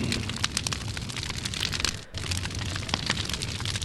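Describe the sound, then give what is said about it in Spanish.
A campfire in the mountains crackles steadily, dense pops and snaps over a soft hissing bed of noise, fairly loud, with a brief lull midway before the crackling resumes. “Eh, que está calorcito? esa, esa fogata, ¿eh? Está rico, ¿verdad?”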